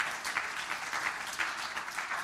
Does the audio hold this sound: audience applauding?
yes